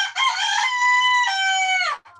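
A rooster crows once, loud, a single drawn-out call lasting nearly two seconds with a strained, wavering pitch that drops off at the end.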